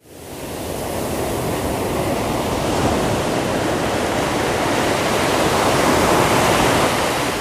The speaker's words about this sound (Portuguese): Todas cantamos ondas gigantes, indo e vindo, eu te amo, eu te amo é isso que o mar nos diz.